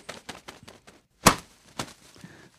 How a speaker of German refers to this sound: zack, auf den Tisch geknallt. Die Ergebnisse vor der Auflösung unseres heutigen Schießbuhnspiels.